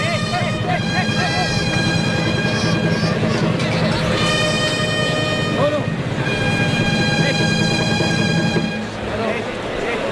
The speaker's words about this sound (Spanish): Ahí está el toro, entretenido por la cuadrilla, como oímos perfectamente.